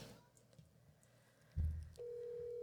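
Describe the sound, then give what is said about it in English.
Quiet background, then a low thump, followed by a steady, mid-pitched telephone tone that starts and holds without a break as a call is placed. No one speaks. “I can't do this by myself, so I'm gonna call all my girls, everybody. Just keep calling”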